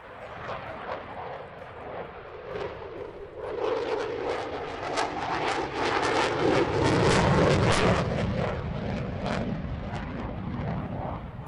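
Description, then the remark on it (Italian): A Eurofighter 2000 Typhoon jet fighter roars past, a broad, harsh engine rumble with crackling high-end noise that swells midway and stays loud, then eases slightly toward the end. “Eurofighter 2000 Typhoon, adorabile squilibrato”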